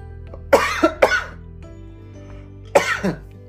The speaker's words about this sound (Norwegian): Ja, hoste litt. Det må man gjøre på live også.